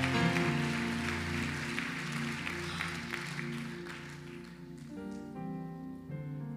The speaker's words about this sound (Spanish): En el nombre del Señor de gloria al Señor, un aplauso. Amén.